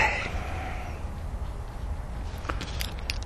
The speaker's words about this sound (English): So we need to add that actually. Goldfinches.